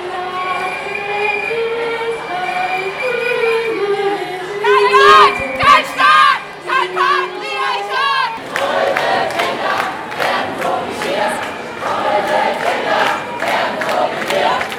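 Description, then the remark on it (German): A loud crowd of feminist counter-protesters shouts at the annual Pius Brotherhood demonstration against legal abortion, breaking into rhythmic, chant-like bursts in the second half, after an opening stretch of steady, high, whining tones. “Feministinnen übertönten die diesjährige Pius-BrüderInnen-Demo”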